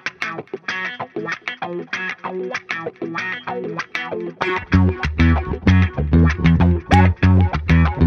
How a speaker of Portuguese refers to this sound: Vamos lá, esse é o som groove quântico da banda